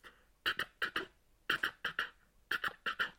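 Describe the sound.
A voice imitates the classic sound of old train wheels clacking over the gaps between rail sections: three quick groups of four short, punchy bursts in a steady galloping rhythm, clear with no other talk.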